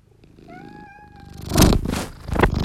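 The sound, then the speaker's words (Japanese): A cat purrs, with a short drawn-out meow early on, followed by a couple of louder rustling, breathy bursts. “今度はゴロゴロ音に変わりました。”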